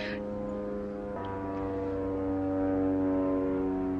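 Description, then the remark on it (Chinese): A small propeller airplane drones overhead, a steady buzzing engine hum with layered tones that swells slightly louder over four seconds, with no one speaking. “我们上面飞过去一个小飞机哈”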